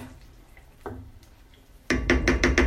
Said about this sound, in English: Turning the flame down quite a bit lower. Yeah. You can hear that they're bubbling a little faster than I'd like. I mean, it's not so bad.